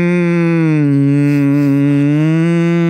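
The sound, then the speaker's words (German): A person hums a sustained, steady low-pitched tone for about three seconds, imitating a singer's humming from his early singles, loud and continuous with a slight wavering in pitch, no words spoken. “Nein, er hat so gerne gesummt.”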